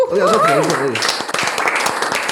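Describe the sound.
A loud burst of crowd applause, dense and steady, follows a brief rising and falling vocal cheer or whoop at the start, with voices mixed into the clapping, given as guests are thanked and say goodbye at the close.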